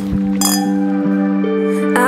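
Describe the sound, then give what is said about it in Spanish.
A bright clink of glasses in a toast rings out near the start, then a second chime near the end, over a steady background of sustained tones. Nobody speaks. “salud. Salud.”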